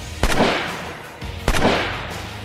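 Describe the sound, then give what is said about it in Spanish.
Two loud shotgun blasts, about a second and a quarter apart, each a sharp crack followed by a booming, reverberant tail that fades slowly. No one speaks. “Barreda le disparó dos escopetazos”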